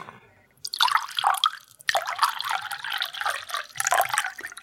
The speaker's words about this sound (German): meine persönliche akustische Verladerampe ist das Geräusch, wenn Leute Wasser einschenken und dafür viel länger brauchen, als man müsste. Mhm. Macht mich wahnsinnig.